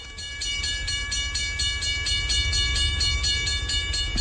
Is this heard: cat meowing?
no